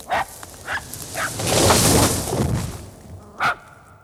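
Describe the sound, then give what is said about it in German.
A dog barks in four short, sharp yelps, three in quick succession and a louder one after a pause, with a broad rushing noise swelling in between. “Wo ist denn dein Hund”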